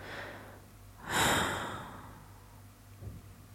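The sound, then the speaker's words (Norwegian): A single slow, deep breath, a long airy exhale that swells loudly and then fades, followed by quiet with a soft faint breath near the end. No talking. “Og pusten automatisk blir sånn”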